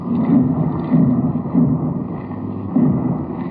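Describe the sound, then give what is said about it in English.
Muffled drumbeats of Franklin Delano Roosevelt's funeral cortege thud low and slow, about four heavy beats, over a constant dull rumble of shuffling feet with no clear voices, as the procession winds from Washington's Union Station to the White House. “What you are hearing are the sounds of his funeral cortege the muffled drums, the shuffling feet as it winds from Washington's Union Station to the White House.”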